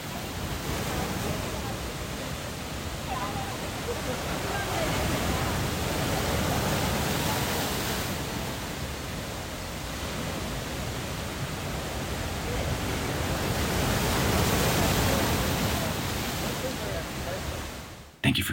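Ocean waves crash continuously onto the shore of Jeju Island, South Korea, in a loud, dense roar, with broad swelling surges rising and falling every few seconds and no voices present.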